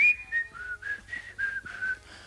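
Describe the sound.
A man wearing a face mask whistles a short melodic tune, a series of clear sustained notes rising and falling in a steady rhythm, about 5 meters away, with faint background noise and no talking.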